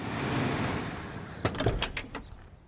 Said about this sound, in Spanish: En la calle, un Mercedes pasa frente a la casa de Jessie.